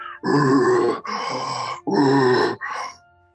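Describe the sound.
A person imitates the very strong growl of a creature like a ball of fur at the tip of a bamboo grove, with four rough, guttural bursts in a row, each lasting under a second, delivered forcefully with no ordinary speech.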